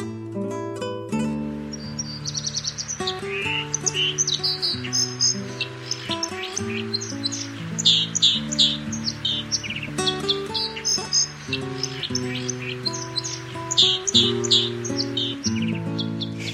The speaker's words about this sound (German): Das war die Wasseramsel.